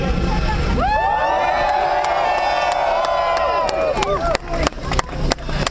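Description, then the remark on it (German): An audience cheers for everyone who took part in the day's action, with long, sustained high-pitched whoops and shouts that hold steady for a few seconds, then break into scattered, sharp clapping as the cheering fades. “Also bitte ein großer für alle, die haben sich heute beteiligt.”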